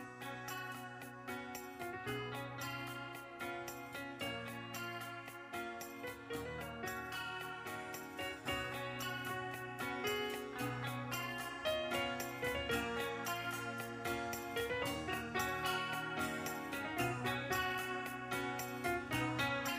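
A Brazilian rock song's instrumental intro plays steadily and loudly, with a driving beat, layered guitars and bright repeated notes, full band sound and no singing or talking yet.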